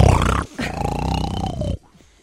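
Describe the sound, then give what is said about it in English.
A person imitates their own loud snoring in deep sleep: a short rough snort followed by a longer, rumbling, throaty drawn-out snore, forceful, then silence. “I'd be very interested to hear mm-hmm. how bad my snoring is.”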